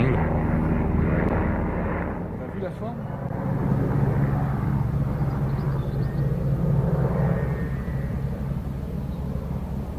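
A military helicopter on a night flight passes overhead at Grand Ponceau in the Lyon area of France, its heavy engine rumble and steady droning throb loud throughout, swelling slightly toward the middle before easing off.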